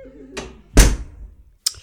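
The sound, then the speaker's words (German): A backstage dressing-room door is shut with a heavy thud that rings out briefly, preceded by a softer creak or bump and followed by a short sharp click. “Oh, mach doch mal jemand die Tür zu.”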